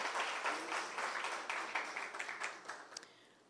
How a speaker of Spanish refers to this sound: Y vamos a darle ese aplauso a Él como se lo merece.